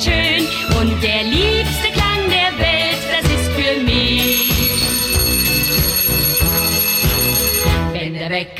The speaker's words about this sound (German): Aufstehen ist schön und der liebste Klang der Welt, das ist für mich, wenn der Wecker schellt.